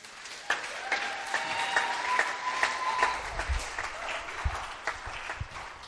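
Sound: audience round of applause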